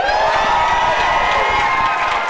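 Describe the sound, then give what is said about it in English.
A large crowd cheers and shouts loudly and continuously, a dense wash of many voices whooping and yelling together with no pauses, like an audience roaring. “Yeah, sounds like there's a lot of you.”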